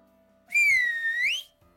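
A single loud whistle lasting about a second, its bright tone sagging slightly before sliding upward at the end, with only a faint low hum underneath and no talking.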